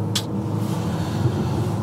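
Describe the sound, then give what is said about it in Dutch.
A car with a 336 km/h top speed roars under hard acceleration from 50 to 170 km/h, a dense, loud low engine rumble that holds steady throughout, with a brief airy hiss near the start and no voices. “En nu ga ik even op een heel klein stukje, even een klein, van, van 50 naar 170 op het gas.”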